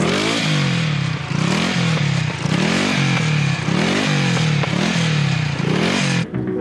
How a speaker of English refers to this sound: What's wrong? Our motorcycle is stalled and we have to start all over again.